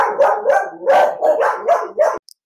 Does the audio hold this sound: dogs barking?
yes